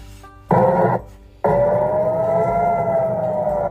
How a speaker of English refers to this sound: Rocket warning sirens wail in the southern Israeli city of Ashkelon. Moments later, two rockets fired toward Israeli civilians are destroyed.